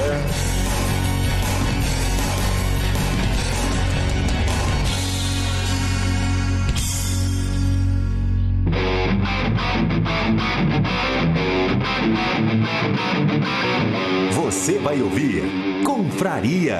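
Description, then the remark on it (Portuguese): A loud, heavily distorted musical jingle full of processed effects, its texture shifting abruptly about halfway through, with a voice speaking briefly over the music. “Dropzilla, Errou! vinheta e confraria bicho solto, pauta livre.”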